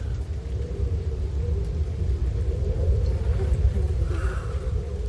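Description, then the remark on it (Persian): A car rumbles past, its deep, steady engine drone filling the whole stretch with little change in loudness and no voices. “این ماشینم رد میکنم میره”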